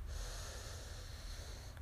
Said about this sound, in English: And start breathing calmly here. Breathing deeply in